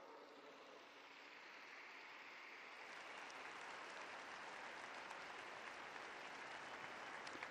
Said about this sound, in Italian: Rendiamo lode a Dio per la testimonianza di questo strenuo difensore della fede e della dignità dell'uomo e salutiamo con un applauso lui e tutto il popolo lituano.